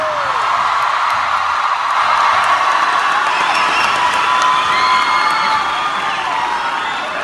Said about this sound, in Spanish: Un gran aplauso a todos ustedes esta noche.